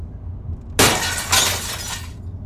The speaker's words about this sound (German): Aber dann ist jemand durch das Glas gekommen.